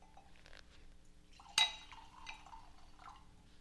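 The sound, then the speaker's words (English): A sharp clink of glass, followed by a soft, trickling splash of Longhorn Valley 2016 wine being poured into a glass. It is quiet, with no one talking. “Listen to him pour it. Can you hear this?”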